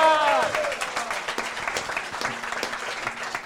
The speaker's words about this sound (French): Et voilà, et j'allais vous dire des applaudissements pour Lucas, pour lui faire chaud au cœur et là où il nous entend.